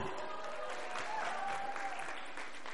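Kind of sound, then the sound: crowd, audience applause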